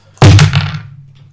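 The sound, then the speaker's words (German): Two twenty-sided dice are rolled with advantage onto a wooden table, a loud clatter of several quick bounces settling within half a second, with a low hollow resonance lingering afterward. No one speaks. “Okay, Advantage heißt mit 2 W20. Ich brauche einen zweiten.”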